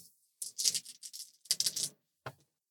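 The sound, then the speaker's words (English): Three dice clatter and rattle across a hard surface in two quick bursts, followed by a short final clack; fairly quiet, with no talking. “And it's going to work the same way, uh, except that since you're rolling three dice, you can pick any single one of the three dice or any combination of two.”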